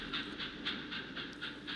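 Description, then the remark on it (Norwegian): A train rolls steadily into the railway station in Kigoma by Lake Tanganyika, with a rhythmic series of bright metallic clacks or squeals repeating about every half second over a low continuous rumble. “Toget siger inn på jernbanestasjonen i Kigoma ved Tanganyikasjøen.”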